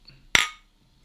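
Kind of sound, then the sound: household object, glasses clinking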